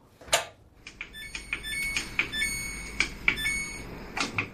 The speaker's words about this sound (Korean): 이게 세탁기 조작하는 겁니다. 그리고 이제 물이 쏟아지기 시작하는 거죠. 세탁기 조작음, 오늘 보물소리입니다.